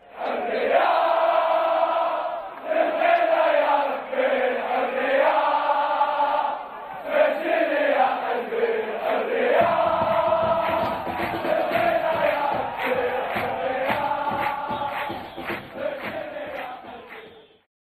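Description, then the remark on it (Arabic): A massive crowd of football ultras fans chants and sings in unison in the stadium stands to support their clubs, voices rising and falling in melodic waves, with rhythmic drumming and clapping driving the chant from about halfway through. “تصدح أغاني مجموعات الألتراس وهتافاتها لتشجيع نواديها الكرويّة في المدرّجات”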